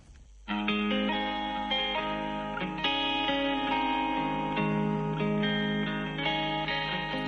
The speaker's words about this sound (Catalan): Ara anem a escoltar el … de …